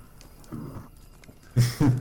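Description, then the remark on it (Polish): Human voices imitate growling: a quieter rumbling growl first, then two louder, rough, guttural growls, as if several people join in. “się dołącza do warknięcia.”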